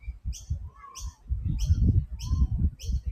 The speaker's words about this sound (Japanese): 何か鳴き声聞こえますね。あのー、鳥です。鳴き声は鳥です。鳥の鳴き声が聞こえてます。いいと公園に来たのでね、結構自然がいっぱいです。